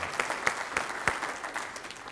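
An audience applauds for their mothers, a dense wash of overlapping hand claps with a few sharper, louder claps standing out at irregular moments, sustained at a steady moderate level throughout.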